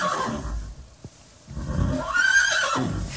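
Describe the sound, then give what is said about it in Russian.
A horse neighs loudly, a long shrill whinny that rises and wavers before breaking into a rough, snorting tail, with no talking over it. “Меня всегда удивляет, когда э, лошадь э, ржет, у нее такая акустика хорошая, непонятно откуда, из черепной коробки или из ну, живота.”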